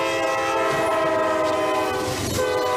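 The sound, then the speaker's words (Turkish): A train barrels at full speed on a cold day toward a minibus stuck on the rails, its loud horn blaring steadily for the whole moment over a dense rumble of wheels on the rails. “Tren son sürat minibüse çarptı.”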